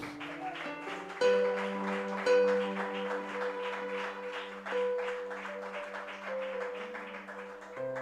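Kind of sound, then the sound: crowd, audience clapping loudly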